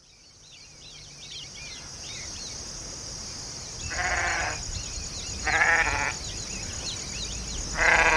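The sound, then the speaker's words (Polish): A flock of grazing sheep bleats three times at spaced intervals in the distance, moderately loud, over a steady high insect drone and scattered bird chirps in an open outdoor setting. “Popatrz, z daleka widać pasące się stada owiec.”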